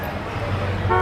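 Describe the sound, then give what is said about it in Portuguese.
A city bus, route 307, pulls in on time, its deep engine rumble steady throughout the short moment, with a brief horn-like toot rising near the end. “Maldito 307 chegou novamente no horário. Esse ônibus sempre acaba com a minha admiração platônica.”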